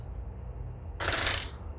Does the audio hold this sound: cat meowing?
no